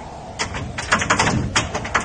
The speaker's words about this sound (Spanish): Después del descorrer de un cerrojo, vino el chirrido de las bisagras sin engrasar.